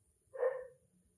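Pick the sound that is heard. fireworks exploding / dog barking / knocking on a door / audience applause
dog barking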